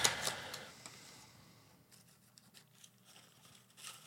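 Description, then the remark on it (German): Quiet rustling of paper as notes are pulled from a crinkly popcorn bag, starting with a brief burst of crinkling and tapering into soft, scattered shuffles and taps. No one speaks. “Warte, ich hole den Zettel raus.”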